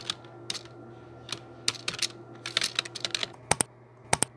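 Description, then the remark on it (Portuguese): Clatter of computer keyboard typing, irregular bursts of sharp clicks with a few louder isolated keystrokes near the end, over a steady low electrical hum and no speech. “Cansei desse barulho irritante de teclado.”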